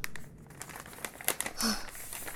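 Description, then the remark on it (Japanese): A paper letter, a love letter found in the gap under a door, being crumpled, a brief burst of dry crackling and crinkling that swells and fades over a couple of seconds, with no voices. “あれどうしたいやドアの下の隙間に手紙がラブレター”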